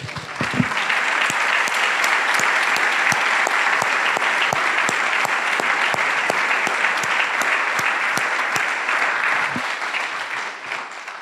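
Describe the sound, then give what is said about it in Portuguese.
A crowd applauds Jesus as the victor steadily for about eleven seconds, a dense, even wash of many hands clapping with a few sharper individual claps standing out, tapering slightly at the end. “Ah, nós podemos aplaudir de novo o vencedor?”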